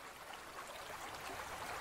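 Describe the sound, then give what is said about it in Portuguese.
Water rushes steadily from a spring, beginning to pour out much more strongly, a continuous hissing, bubbling flow with no breaks, fairly soft and heard on its own with no voices. “A água começa a verter muito mais forte daquele lugar, daquela nascente.”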